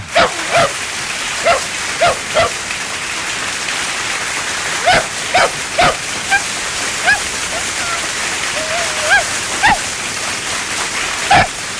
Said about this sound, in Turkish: Hangi köpeğin sesi kaydedildi bilmiyorum ama e, derdini en net anlatan bu dostumuzu tebrik ediyorum kendisine.